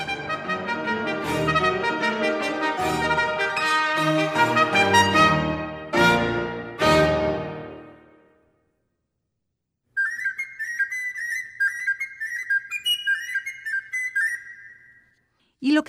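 A 2008 recording of a piece for trumpet, string quintet and piano in E-flat major, its final gavotte, Allegro non troppo, plays loud, full, rhythmic ensemble chords that end after about eight seconds; after a brief pause, a thin, high, whistling melodic line continues softly.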